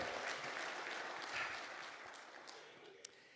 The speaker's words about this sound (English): Man, give yourself an applaud. Would you do that? Come on, you can do better than that. Come on, one more time.